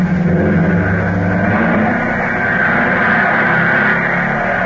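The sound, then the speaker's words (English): A dozen low-slung racing cars roar steadily around a dirt track on a bright, brisk fall afternoon, a loud, continuous engine drone with deep rumbling tones that holds without pause throughout. “Around the dirt track roar a dozen low slung racing cars.”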